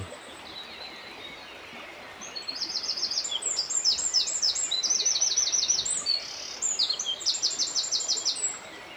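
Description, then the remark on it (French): A Eurasian wren perched on the bank of the Drôme river delivers a loud, rapid territorial song of high, clipped trills and rattles lasting several seconds, over the steady rushing river flowing across its bed of white pebbles. “Un troglodyte mignon installé sur la rive marque son territoire par son chant.”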